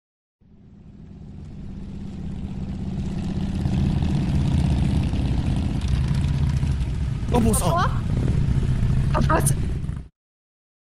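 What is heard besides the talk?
airplanes flying overhead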